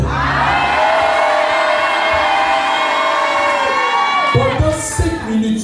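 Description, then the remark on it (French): An audience shouts a loud, drawn-out amen in unison in response to a call for a strong amen during prayer, holding it for about four seconds before it breaks into scattered voices and cheers. “Je dis donne-moi un fort Amen.”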